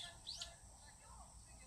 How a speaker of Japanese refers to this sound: 今4時半前なんですけれども聞こえます小鳥のチュンチュン鳴く音鳴く声ですね